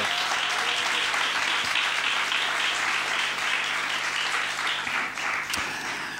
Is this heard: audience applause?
yes